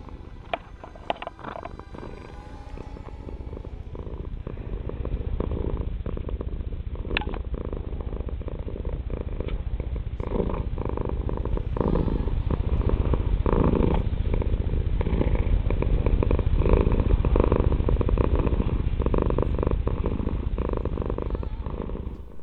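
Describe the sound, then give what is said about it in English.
A cat purrs steadily for the whole stretch, a continuous low rumbling drone with a soft pulsing rhythm, growing slightly louder partway through. No one speaks. “um, yeah, she'll be She'll be purring like a um, car.”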